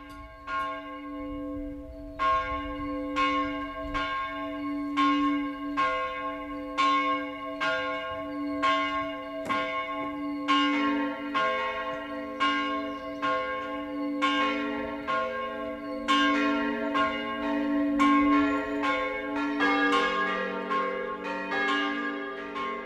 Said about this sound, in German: Es ist 12 Uhr. Das Mittagsläuten kommt heute von der katholischen Pfarrkirche St. Johannes Evangelist in Astheim in Unterfranken.